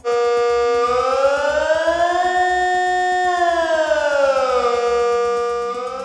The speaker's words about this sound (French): Les sirènes retentiront dans toute la Suisse demain dès 13h30, mais pas d'inquiétude, il s'agira uniquement du test annuel.